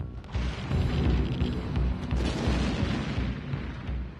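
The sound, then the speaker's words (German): A heavy explosion boom of a reactor block at the Fukushima nuclear power plant in 2011 rolls out as a sustained, deep roar with rumbling low-end energy, loud throughout and with no voices. “Ganze Reaktorblöcke explodieren.”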